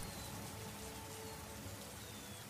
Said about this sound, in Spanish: Ha estado lloviendo durante casi dos lunas, inundando parte del llano y limpiando la cumbre de todas las montañas cercanas.